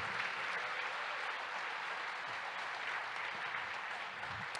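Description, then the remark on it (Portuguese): An audience applauds the Lord during a sermon after a call to say hallelujah, a dense, even wash of many hands clapping at once with no individual claps standing out, sustained for several seconds. “Diga aleluia, aplauda Senhor.”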